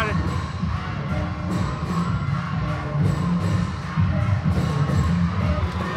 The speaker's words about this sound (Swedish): Här är det prestige. Ni hör ljudet, bara ta in ljudet gott folk! Det är trummor